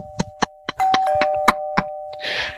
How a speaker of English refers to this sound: I think my doorbell's ringing